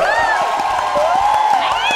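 A virtual-audience cheering and applause sound effect: a crowd cheers and applauds steadily, with dense clapping, rising whoops and whistles over a continuous roar of voices, loud and sustained for the whole moment.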